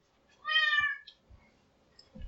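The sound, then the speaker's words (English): A domestic cat named Captain lets out one clear, drawn-out meow, followed by a few soft low thumps and shuffling sounds; no one speaks. “this is our cat.”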